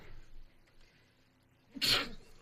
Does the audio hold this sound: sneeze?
yes